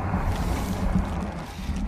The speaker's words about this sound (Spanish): Espera. Calla. Un motor. Es un coche. No, es un camión.